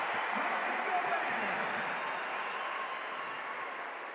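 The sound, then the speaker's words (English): A large basketball arena crowd at a Raptors game roars and cheers after seeing the replay of Rudy's behind-the-back pass to O'Neal, a dense, steady wall of noise that holds loud for the full few seconds and fades only slightly toward the end. “I don't think the crowd realized Rudy went behind the back till they just saw the replay.”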